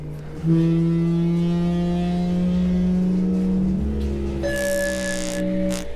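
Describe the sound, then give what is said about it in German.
A loud intonarumori noise-intoner, with a small plastic-bag membrane on top, drones with a buzzing, horn-like tone, playing a glissando: its pitch glides upward partway through and then holds steady as a hissy, whistling edge joins in. No voices. “So Glissandi-Sounds hatten wir viel verwendet in dem Stück für den Russolo.”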